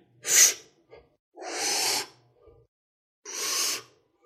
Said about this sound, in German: Man hört mich mehr atmen heute, oder? Wenn ich rede, das Atmen hört man, ne? Warum hört man das? Hm. Keine Ahnung.